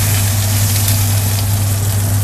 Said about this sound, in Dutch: Oh, ze gaan tegelijk, hoor je dat? Oké, de eieren die zijn eh, aan het borrelen, dus prima. Ik doe vijf minuten.